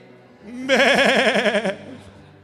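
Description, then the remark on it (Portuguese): A person gives one loud, wavering sheep-like bleat lasting about a second, an imitation with a quavering, nasal tone, then the voice breaks off into quiet. “Faz o som de ovelha aí.”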